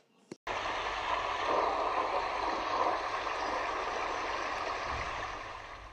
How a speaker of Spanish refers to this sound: Jack Mull avanzó hacia mi cama, entonces empezó a llover.